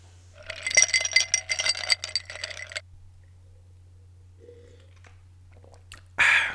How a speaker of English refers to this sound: So I just had a nice, lovely sip of port that I've been sipping on for the entirety of this session.